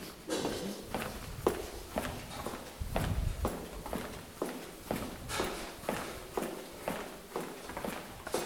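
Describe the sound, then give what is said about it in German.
Footsteps of a woman walking at a steady, brisk pace on a hard floor through the Otto Group's central archive, each step a crisp tap in an even rhythm, moderately loud, with no talking. “Dann kommt man ja auch auf seine 10.000 Schritte am Tag.”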